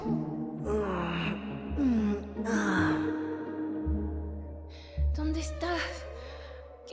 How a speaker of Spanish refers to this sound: Suyana escuchaba el jadeo y respiro de alguien.